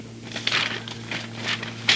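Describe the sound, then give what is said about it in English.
Papers being shuffled while going through the news, a few soft crinkly rustles in quick irregular bursts, with a sharper rustle at the end over a faint steady hum and no talking. “How long do we have to keep going here shuffling papers and doing that?”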